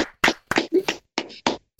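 A short burst of scattered hand clapping, about eight or nine sharp, uneven claps spread over under two seconds, as if from a few people rather than a full crowd.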